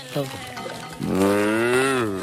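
A single long, drawn-out cow moo, loud, rising slightly in pitch before tapering off, preceded by a brief lower vocal sound.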